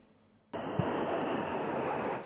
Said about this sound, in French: Dans le ciel de Moscou, les moteurs des avions de chasse grondent au-dessus de la place rouge. Un des escadrons d'aéronefs forme un Z, signe de l'armée russe en Ukraine.